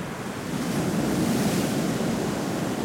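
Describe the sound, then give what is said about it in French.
Sea waves at full force rolling and breaking on the shore in a steady, broad wash of surf, loud and continuous with no voices, a gusty roar of wind blended in. “Ça te fait penser à quoi la mer À la vie.”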